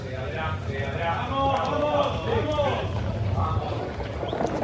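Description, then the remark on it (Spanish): Horse hooves clip-clop in a steady, continuous rhythm at moderate loudness, with indistinct voices talking over them throughout. “Apenas tenga el caballo sillao.”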